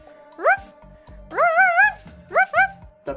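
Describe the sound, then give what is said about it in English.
A person's voice imitates a dog barking, giving short rising woofs in uneven bursts: one, then a quick run of several, then a pair. The voice is clear. “Ruff, ruff, ruff, barking like a dog.”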